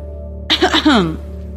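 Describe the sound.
A short, deliberate throat-clearing "ahem" with a harsh onset and a few voiced bursts that slide downward in pitch, close and moderately loud against a steady low hum, performed rather than natural.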